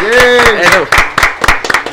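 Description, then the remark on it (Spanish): A voice calls for a round of applause, then several sharp hand claps follow at an uneven pace, like a small group briefly applauding, fairly loud and quickly tapering off. “¡Un aplauso!”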